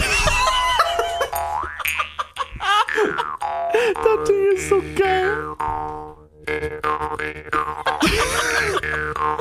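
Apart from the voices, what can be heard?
jaw harp being played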